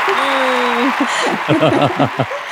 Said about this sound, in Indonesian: Yeay, iya tuh, tuh tepuk tangan banyak banget tuh.